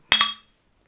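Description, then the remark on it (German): Two quick bright clinks of glasses touching in a toast, clear, ringing briefly before fading into silence. “Und ich muss ganz kurz sagen, ich finde, diesmal hat sich das sehr clean angehört. Das, ähm, äh, das Aneinandersehen.”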